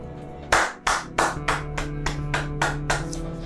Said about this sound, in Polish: Ja biję brawa. No pięknie.